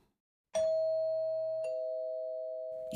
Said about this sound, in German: Jeder der Monologe dieses Hörbuchs beginnt mit einer Wohnungsklingel. Und jede Klingel klingelt anders.